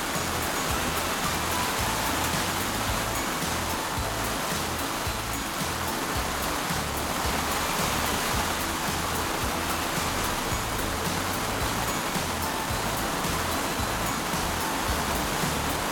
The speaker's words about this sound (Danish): Hold da op, det regner nu